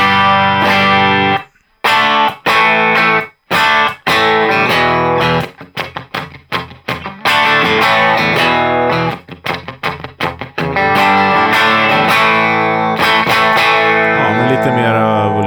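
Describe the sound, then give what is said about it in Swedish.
An electric guitar played through a Blues Breakup Single Coil amp preset gives a mildly overdriven blues tone, playing chords and riffs with short stops and choppy strummed bursts, moderately loud, then sustained ringing chords toward the end. “Blues Breakup Single Coil.”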